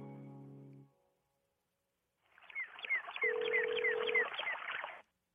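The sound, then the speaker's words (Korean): A steady, mid-pitched telephone tone hums for about a second over a busy, crackling wash of sound, after a brief low buzzing tone and a short silence, as Park Myung-soo's radio show places a call to an anonymous listener who had sent in a text. “전화 걸어서 얼마나 찌질한지 한번 알아보도록 하겠습니다.”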